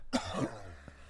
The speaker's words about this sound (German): Gesundheit